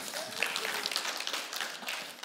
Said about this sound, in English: they, they clapped for you, Pastor Bill.